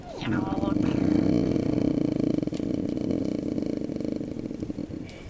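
A black cat sitting by a fire purrs in a steady, low, pulsing rumble that continues unbroken for about five seconds at a fairly even, moderately loud level.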